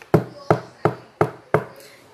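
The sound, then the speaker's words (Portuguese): Five firm knocks on a wooden door in a steady, even rhythm, each a hollow thud that fades quickly, with no voices over them: the wolf knocking at the door of Grandma's house. “Chegando à casa da vovó, o lobo bateu à porta.”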